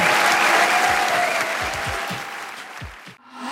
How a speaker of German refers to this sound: Applaus